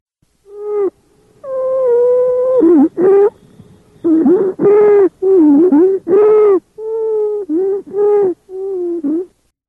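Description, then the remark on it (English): Stridor: a loud, high-pitched whistling-crowing sound on inhaled breaths, repeating about ten times in quick irregular bursts with short gaps. No talking. “So here we go with Stridor, and that'll finish up our airway sound review.”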